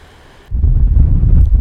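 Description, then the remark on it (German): A deep, steady roar of ocean surf swells in abruptly after a brief quiet moment, rumbling loud with a buffeting, wind-like texture and no voices. “Danke fürs Unterstützen und sorry fürs Meeresrauschen im Hintergrund.”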